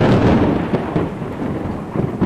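A loud, rumbling thunder clap rolls on continuously for a couple of seconds, heavy low-frequency boom with a few sharper cracks layered over steady rain-like hiss.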